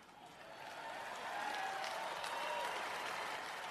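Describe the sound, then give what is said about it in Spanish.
A large audience at Ray Guy's Hall of Fame induction applauds steadily, a dense wash of clapping that swells slightly and holds, with faint crowd murmur and a few whistles mixed in. “Con justa razón, todos esos aplausos.”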